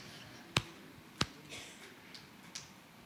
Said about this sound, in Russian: Ну, ударяя себя в грудь Ударь себя в грудь. Не сильно. Не ломай ребра себя. Чуть-чуть.